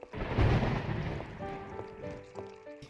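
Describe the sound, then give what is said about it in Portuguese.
Steady rain hisses throughout while a deep rumble of thunder swells early and rolls away; faint sustained tones drift in underneath as the storm settles. “Enquanto chove, Jorge está sentado na sala escrevendo em sua máquina de escrever quando ouve a porta abrir.”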